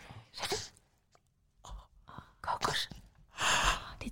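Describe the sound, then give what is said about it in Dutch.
A baby makes soft little noises, a handful of short breathy squeaks and gasps in uneven bursts, quiet, with brief pauses between them and no talking. “We zijn de liefste geluidjes hier.”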